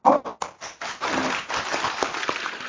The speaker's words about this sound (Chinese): 鼓掌